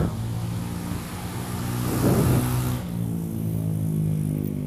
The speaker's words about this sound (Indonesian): sorry banyak motor kedengaran mungkin ya suaranya motor ya mudah-mudahan sih enggak ya mudah-mudahan nggak noise soalnya gue lagi di, di apa namanya di outdoor juga